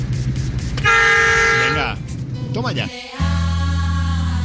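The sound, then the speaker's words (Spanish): A vehicle horn blares in two loud, sustained blasts, the second one deeper and still sounding at the end, over a steady engine and road rumble. “Me encanta el sonido de ese claxon.”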